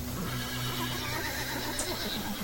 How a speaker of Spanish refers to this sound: Al estar tomando agua, el caballo empezó a relinchar muy nervioso, avisándoles de algo.